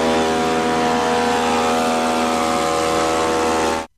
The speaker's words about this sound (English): Oh, yeah, it's a leaf blower. It was a leaf blower. I thought it wasn't. It was a leaf blower.